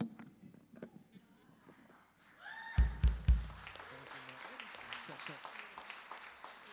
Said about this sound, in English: Come on, keep keep round of applause.